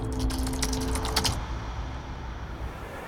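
Quick, irregular clicks of someone typing on a computer keyboard for about a second, then the tapping stops and only a low background hum remains.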